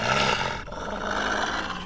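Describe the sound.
A loud, raw, harsh roaring scream held for about two seconds, with a brief dip midway before it surges on, screamed as loud as possible to scare off wolves; no speech alongside it.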